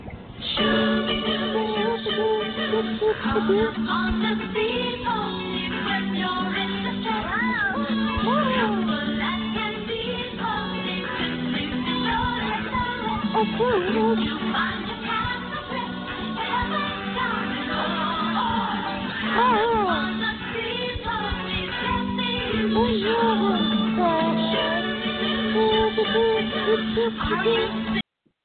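A recorded cartoon song, downloaded as a phone ringtone, plays continuously at steady volume, with melodic singing over a sustained backing drone and instrumentation, sounding slightly thin and band-limited like playback from a device.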